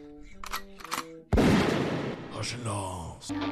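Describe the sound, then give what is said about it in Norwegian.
A voice speaks briefly, then one loud shotgun blast booms out and rumbles away over a couple of seconds before the voice comes back. “gi meg hagla.”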